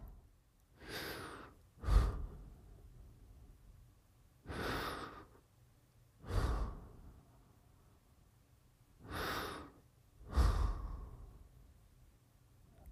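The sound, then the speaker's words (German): Three slow, relaxed breaths taken while seated with a hand on the heart, each a soft airy inhale followed by a longer exhale, clear with quiet pauses between them and no talking. “Und jetzt nimm drei entspannte Atemzüge und lege dabei deine Hand auf dein Herz.”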